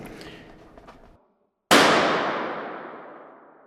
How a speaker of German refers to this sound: Ich bin jetzt ein bisschen weiter weggegangen von dir, damit deine empfindlichen Hundeohren, damit der Luftballon, das Platzen nicht zu so laut ist. In diesem Raum hier ist das Luftballonplatzen sehr viel lauter.